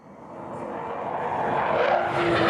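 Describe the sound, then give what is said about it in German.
Loud roar of airplanes flying at the Zig Air Meet air show in Mollis, Canton of Glarus, a broad engine rumble that swells steadily, with a whining tonal note rising near the end; no talking. “Die Schultra ist die Flugshow «Zig Air Meet», die heute in Mollis gestartet ist.”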